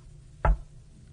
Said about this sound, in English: Oh man. yeah, that's bad news for Kent there, the, the single knock meaning yes.